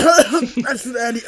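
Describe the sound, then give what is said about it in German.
A few voiced coughs in quick succession, throaty and uneven, with a breathy, laugh-like quality between them. “Gesundheit, das hört sich echt gar nicht gut an. Ja, willst du einen Hustenbonbon?”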